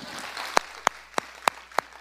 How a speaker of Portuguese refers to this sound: Boa, vamos aplaudir, vai, vamos aplaudir.